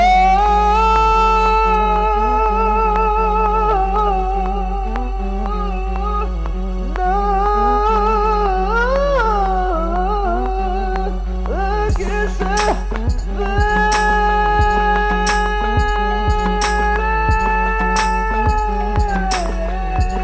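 Live music plays through loudspeakers: a heavy, steady bass drone under sustained, wavering melodic tones, with sharp rhythmic beats joining halfway through. No one talks over it.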